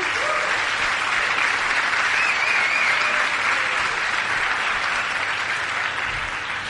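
A loud, sustained burst of audience applause for the group's leaders, dense clapping from many hands that holds steady for several seconds before easing slightly at the end.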